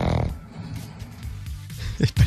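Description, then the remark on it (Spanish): A household pet pug snores while resting, a rough nasal rumble that drones steadily before ending in two louder, sharper snorts. “Sale un carlino que está descansando.”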